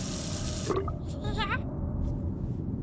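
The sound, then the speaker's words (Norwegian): A water tap in a house runs with a steady rushing hiss, briefly sputtering and squealing with gurgling, whistling bursts before settling into a constant flow. Fairly loud. “Skal vi se, nå tar jeg opp krana her.”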